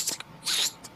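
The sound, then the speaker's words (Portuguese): A voice imitates completely soaked shoes squelching on the ground while walking: short wet, hissy bursts, a couple of quick ones, then a longer smeared squish and a final brief one, fairly soft. “Sabe quando, quando ah, os os tênis, os sapatos de vocês estão completamente molhados e fazem aquele”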